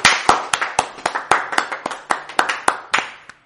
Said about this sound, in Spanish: Bueno, pues el día de hoy, güey, les quiero, le quiero dar la bienvenida, que ya vi que llegó, a mi invitado. Eh, así que denle por favor un fuerte aplauso a eh, este comediante y amigo, Alex Yopi.